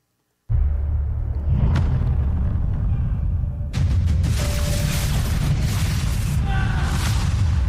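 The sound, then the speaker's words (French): A dramatic trailer soundtrack swells with deep booms and a sustained low rumble, then surges louder with a crashing, dense burst of cinematic impacts and noise that stays loud to the end. “je vous fais écouter une bande-annonce.”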